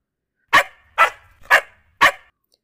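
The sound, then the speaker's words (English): The dog Jalebi barks four times in a steady, evenly spaced series, each bark sharp and fairly loud with a short tail, and near silence between them. “Jalebi calmed down as well, and just as she was coming back to Ruhi, she stopped halfway and started to bark and wag her tail.”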